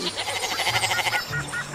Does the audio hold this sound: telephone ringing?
no